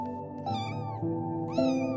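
Kittens meow in short, high-pitched cries, two distinct mews rising over a steady tonal background, fairly loud with no talking.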